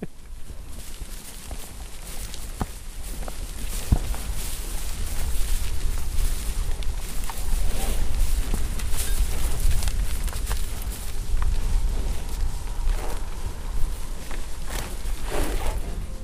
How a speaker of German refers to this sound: Ja, so klingt es also, wenn die Kühe in der Marsch von Riebe grasen.